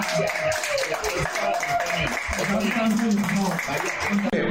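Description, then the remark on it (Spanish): Steady applause from a group fills the whole stretch, a dense crackle of many hands clapping, with voices murmuring and calling out underneath. “En este, en este espacio, es un aplauso a gracias.”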